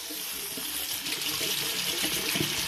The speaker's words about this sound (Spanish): A la vez el agua es más fuerte.